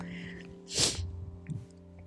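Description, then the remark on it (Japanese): A sharp, breathy gasp from a person out of breath, followed by a fainter breath, over a steady low outdoor rumble of strong wind and passing cars. “あすいません私の息切れの音とえ風がめっちゃ吹いてるのとえっ、ー、と車が通るのでですね結構雑音がいっぱい入ってると思う”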